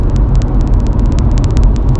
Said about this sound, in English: There's a lot of noise. Those back wheels are really loud.